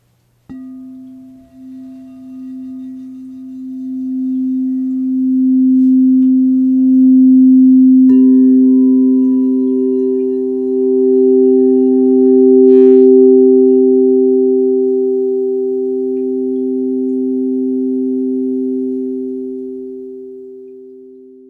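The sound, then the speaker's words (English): A steady, pure low tone hums alone, then a second pure tone a fifth above joins it, forming the tonal interval of a fifth, and the two sustain together evenly for a long stretch, loud, with no voices. “This tonal interval is called a fifth.”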